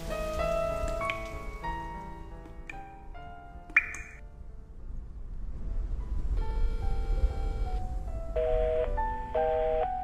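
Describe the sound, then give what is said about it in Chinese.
Steady rain patters on tree leaves in a continuous soft hiss, with gentle melodic chime-like notes ringing over it and one brief sharper tap partway through. “你有多久没有打开耳朵，细细聆听雨滴打在树叶上的声音？”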